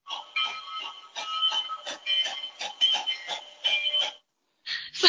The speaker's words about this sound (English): an old school train this time.